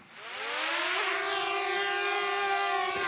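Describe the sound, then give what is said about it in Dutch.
A drone's propellers whir into a high, buzzing whine that climbs in pitch, then holds steady and loud. There is no talking, just the continuous motor drone. “Ja, dit is mijn drone.”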